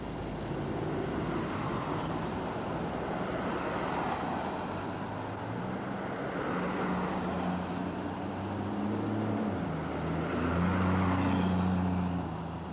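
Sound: traffic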